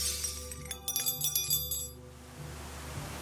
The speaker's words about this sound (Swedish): Det ramlar vassa föremål från alla hörn. Bestick, askkoppar, glas och porslin krossas mot golvet.